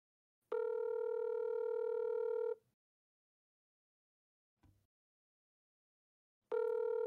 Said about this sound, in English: So I'm going to go ahead and ring his phone. Whether or not he answers, we'll see. But just so we just so we can say that we did, I'm gonna ring him.